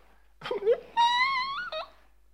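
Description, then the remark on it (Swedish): A voice mimics crying: a short, broken sob followed by a drawn-out, high-pitched wavering wail that drops off at the end, fairly loud, with no other sounds around it. “Gråt inte. Varför gråter du för?”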